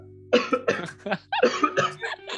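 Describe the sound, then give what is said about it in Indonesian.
A loud run of harsh coughs, about six or seven bursts in quick succession with a ragged, uneven rhythm, heard on its own with no talking. “Batuk batuk tak berdah ya lu.”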